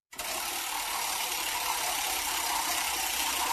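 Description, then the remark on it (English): A prize wheel spins, its pointer rattling out a rapid, steady stream of clicks that starts abruptly and keeps going at an even loudness for a few seconds, with no voices. “go ahead and spin the wheel.”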